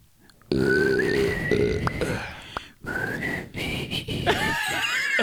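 A breathy, wavering whistle struggles through a tune, cracking and sliding off pitch with rasping, grunting breaks, as someone tries and fails to whistle a song.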